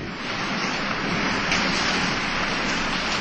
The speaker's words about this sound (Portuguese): Logo em seguida, a chuva se transformou numa violenta tempestade.